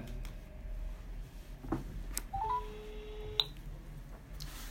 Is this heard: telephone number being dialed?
yes